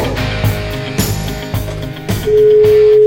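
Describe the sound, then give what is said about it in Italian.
A phone line rings out with a steady electronic tone that begins near the end and holds, after a stretch of clattery, jumbled background sound. No one picks up and the call is transferred to voicemail. “Stiamo trasferendo no, la tua chiamata dai, alla segreteria telefonica.”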